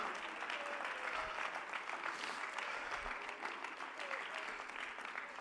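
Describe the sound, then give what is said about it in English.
An audience claps hands to praise the Lord during a sermon, in sustained, dense applause, a steady crackle of many overlapping claps at an even loudness throughout, with no speech standing out above it. “Oh, give the Lord a good hand clap right now.”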